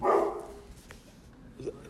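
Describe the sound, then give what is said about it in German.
A speaker's dog gives a single loud bark at the start, followed by a softer yip or whine near the end, with no one talking. “Ähm, dein Hund ist, spricht auch mit, das ist auch gut.”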